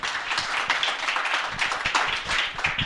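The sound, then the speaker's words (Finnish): A crowd applauds steadily, many hands clapping in a dense, continuous patter that stays fairly loud throughout, with a faint murmur of voices underneath, welcoming a guest before an on-stage talk about a band's story. “Annetaan isot aplodit”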